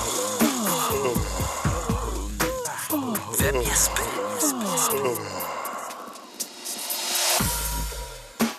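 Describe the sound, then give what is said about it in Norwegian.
A person yawns as an entry in a yawning contest, with long, drawn-out voiced groans that rise and fall in pitch, broken by breathy exhales and gasps, ending in a final stretched yawn. “Etter at Jesp gikk på første forsøk i går, så er det altså et helt rykende ferskt Jesp i vår konkurranse i dag, som høres slik ut.”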